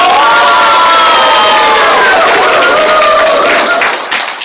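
A loud crowd bursts into sustained applause mixed with cheering and high-pitched shouts, dense clapping filling the room for several seconds before tapering slightly at the end.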